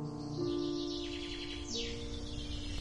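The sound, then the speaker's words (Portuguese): House sparrows chirp busily outdoors around stone pines at a prison, a steady scatter of short, bright calls over a soft, sustained tinkling melody from a music box lulling sleeping children. No one speaks. “os meninos continuam a dormir, embalados pela caixa de música e talvez pelos pardais que aqui fora conversam à volta de pinheiros mansos.”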